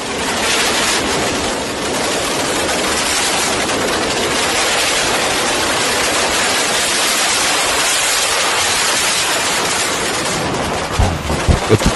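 A loud, unbroken barrage of explosions out on the street, blasts overlapping into a dense, crackling roar for the whole stretch, with no voices heard and a few separate bangs near the end.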